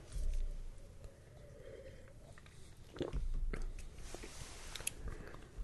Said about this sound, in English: But up front, let me take another sip to figure out the front part is. Hmm.